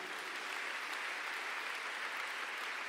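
A crowd applauds steadily, a dense, even wash of many hands clapping at once that holds at a constant level throughout, with no voices standing out.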